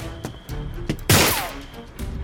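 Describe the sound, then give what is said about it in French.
A sharp, loud gunshot cracks out on a small-town street at night, just before midnight, followed by a brief descending whistle of a bullet passing over a night watchman's head as he crosses the street, with fainter impacts and rumbling around it. “Il n'a pas le temps de traverser la rue qu'une balle siffle au-dessus de sa tête.”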